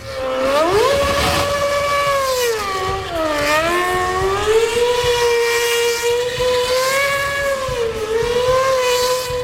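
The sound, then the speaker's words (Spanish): A Red Bull Formula 1 car's engine screams loudly and continuously, its high-pitched whine rising and dipping as the car accelerates and shifts gears while driving past through the streets of Madrid, Spain, during an exhibition. “Así suena por las calles de Madrid un Red Bull pilotado por Checo Pérez”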